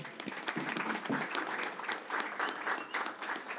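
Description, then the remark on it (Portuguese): An audience at a panel event bursts into steady applause for the organizers, dense overlapping claps filling the space, sustained throughout with no clear pauses. “Então, barulho para eles também.”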